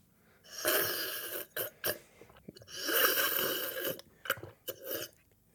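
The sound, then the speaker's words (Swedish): A voice imitates a man's loud, wet slurping heard on a train: two long, noisy sucking draws separated by short, sharp sips and smacks, with no speech. “Jag försökte göra så gott jag kunde var det inte ens i närheten.”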